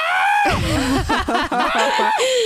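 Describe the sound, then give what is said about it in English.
A person imitates their cat yowling with a catnip toy mouse in its mouth: a loud, drawn-out, wavering cry that slides up and down in pitch, voiced alone. “Yeah, and it, one of it, our cats, when she has a toy in her mouth, walks around screaming about it, just being like, look yeah.”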